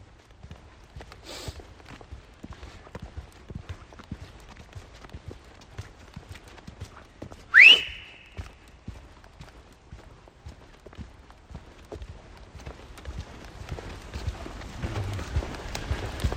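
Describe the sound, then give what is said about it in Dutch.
Brisk footsteps of people walking with a dog crunch steadily along a forest path, moderately loud, with a quick even rhythm. A single short, shrill chirp rises briefly partway through. “We stappen stevig door.”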